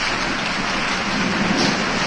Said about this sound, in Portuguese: A chuva começou a cair forte os colonos que já estavam na lida correram e se refugiaram no engenho.